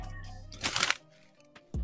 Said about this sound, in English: Let me look at it real quick. Give me one second. Let me see. You're gonna just hear me chewing.